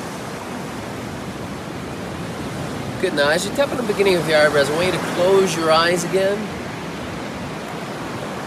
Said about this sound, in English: And as you hear the sea, and the birds chirping and all of that good stuff, I want you to slow your breathing down.